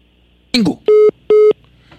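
Telephone line tones after a phone interview call drops: two short, identical steady beeps at a medium pitch, evenly spaced, following a brief clipped burst of voice.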